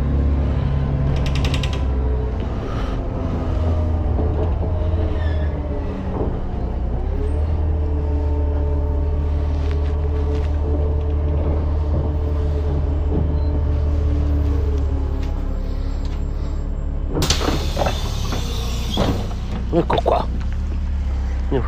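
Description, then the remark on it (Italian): A city bus driving at speed: its engine drones loudly and steadily, with a whining gear tone rising and falling, rattles and creaks, and a sharp burst of air hiss near the end. “va bene adesso vi dico anche la targa dell'autobus non riesco perché vai in velocità CR304KA”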